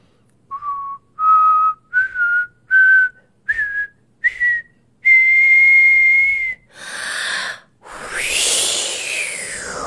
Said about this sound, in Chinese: 她感觉已经练好了吹口哨。 鼓起全身的力气，大声地说：“秋天到，吹口哨。”